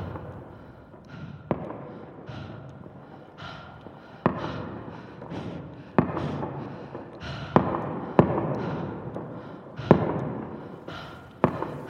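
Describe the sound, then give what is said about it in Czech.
Firecrackers going off outside: a string of sharp, irregular cracks and pops, about seven of them, over a steady rushing background noise with no voices. “Venku zasviští petarda.”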